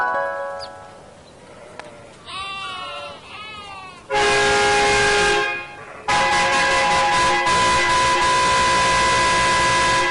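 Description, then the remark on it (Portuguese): A bus horn honks loudly twice as the bus arrives: a blast of over a second, then a long sustained one lasting several seconds, both steady in pitch, right after a brief wavering squeal. “A porcaria do ônibus já tá aqui, ó!”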